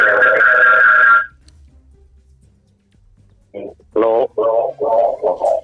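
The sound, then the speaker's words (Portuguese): A loud, thin, band-limited whine of feedback from a caller's radio turned up too loud during a radio phone-in call, down a phone line for about a second, then near silence before muffled telephone voices speak in short bursts. “Por favor, diminua o volume do seu rádio, estamos aqui a ter o retorno.”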